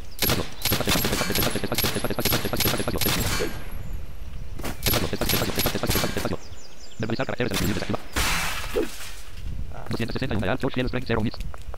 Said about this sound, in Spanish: Ah, ya me quitaron mi escudo. ¿Ya ven por qué no es bueno atacar tan rápido? Ese fue un disparo certero, me dieron.